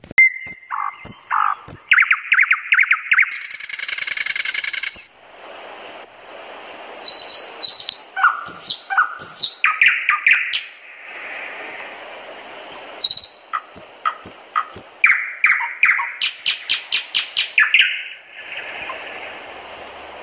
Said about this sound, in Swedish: Och så började näktergalen sjunga. Den är det, sa lilla flickan. Hör ni, hör ni, och där sitter den. Och så pekade hon på en liten grå fågel uppe bland grenarna.